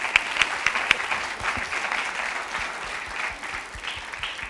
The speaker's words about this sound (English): Well, let's give God a hand of praise.